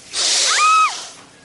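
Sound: snake hissing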